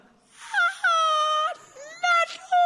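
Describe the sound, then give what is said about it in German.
A man with a slight cold imitates the high-pitched, drawn-out cooing women make when fussing over a baby, several sliding wavering tones in quick succession, fairly loud, with no other talk. “bei Frauen ist das so, die Stimmlage wird sofort nach oben transponiert.”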